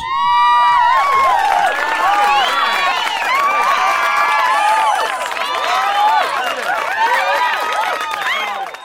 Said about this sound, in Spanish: Estos aplausos son para vos.